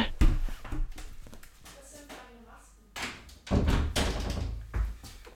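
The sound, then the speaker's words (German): A door is opened and later shut with a couple of solid thumps and clunks, mixed with shuffling movement and a few indistinct voices in the background. “Oh, da, ich muss mal kurz an die Tür.”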